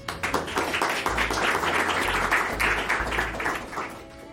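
An audience applauds to welcome a speaker to a presentation on sustainability and technology, a dense wash of many hands clapping at a fairly loud, even level for several seconds, with a low rumble underneath and no voices.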